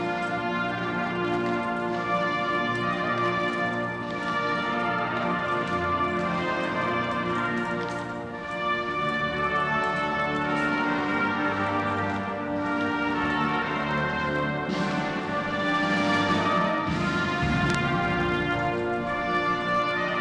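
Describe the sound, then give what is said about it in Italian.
The army band plays the Italian national anthem at the Quirinale Palace during a state visit, stately, at full, steady volume, rich sustained chords filling the whole twenty seconds, with the hooves of the Corazzieri's horses and no voices over it. “A eseguirla la banda dell'esercito. Sentirete anche gli zoccoli dei cavalli dei corazzieri.”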